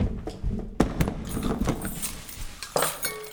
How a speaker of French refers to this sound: Puis, sous les yeux injectés de sang et ébahis de Maurice, la guerrière magnifique brise sa chaîne d'acier, bande son arc et tire à bout portant.